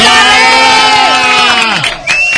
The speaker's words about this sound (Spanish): Un aplauso para Bárbara.